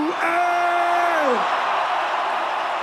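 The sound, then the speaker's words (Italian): A loud crowd at a show in Milan cheers and whoops in welcome for a performer, with one sustained whoop rising then falling over a dense wash of shouting and clapping that continues throughout. “Fammi sentire una doverosa accoglienza per mio zio G.”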